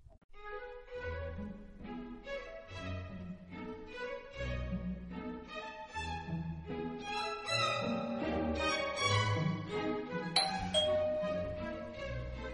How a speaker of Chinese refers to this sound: 小华去看谁按门铃啊？